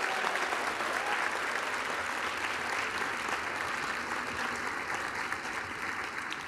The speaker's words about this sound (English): First of all, how about a, another big round of applause for the Rotolo Symphonic Band that just performed for us today?